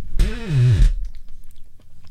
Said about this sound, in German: Ich bin vielleicht kein guter Essensgeräuschmacher, aber so ist es halt, wenn man in so einem riesen äh, Bomberteil hier reinbeißt.